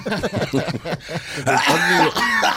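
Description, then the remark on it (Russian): A man coughs toward a professor: several harsh, loud coughs and throat-clearing sounds, mixed with voiced, laugh-like noises and rough vocal bursts, with no clear speech. “кашляет в сторону профессора.”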